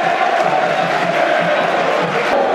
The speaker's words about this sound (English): You can hear the applause for Jed.